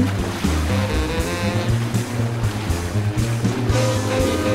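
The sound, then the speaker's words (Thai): Rough waves on a purple sea surge and crash in a loud, continuous roar, with a low, steady musical drone running underneath and no voices. “วันรุ่งขึ้น เมื่อน้ำทะเลเป็นสีม่วง และก็ได้มีคลื่นจัดประมงก็ได้ออกเรือไปที่จุดเดิมอีกครั้ง”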